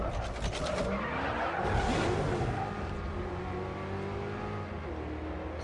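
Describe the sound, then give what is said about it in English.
A car in a video game revs loudly while its tires skid and squeal as it plows through concrete pillars, with a rumbling crash-like burst early on, then a steady engine drone continues full throughout. “Yeah, it's driving kind of like a car would.”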